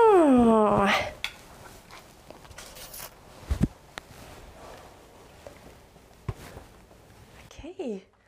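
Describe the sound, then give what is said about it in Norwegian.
A cat lets out a loud, drawn-out growling cry, then settles into quiet, scattered smacking and clicking sounds as it eats its food, ending with another short growl. “Og er du god av mat nå, da, pus?”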